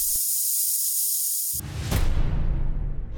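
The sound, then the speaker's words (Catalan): An effervescent tablet dissolves: a steady, bright fizzing hiss for about a second and a half, then a louder, fuller rush of bubbling noise with a brief sharp burst partway through, lasting to the end. “Comprimits efervescents. Històries que es dissolen en dos minuts.”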